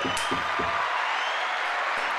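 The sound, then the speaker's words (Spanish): Steady applause from a crowd, a dense hiss of many hands clapping at once, with three quick low thumps at the start before the clapping carries on evenly. “Otro aplauso, puñeta.”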